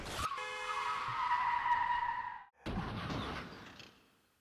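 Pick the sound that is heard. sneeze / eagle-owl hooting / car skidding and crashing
car skidding and crashing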